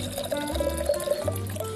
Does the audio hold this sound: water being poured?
yes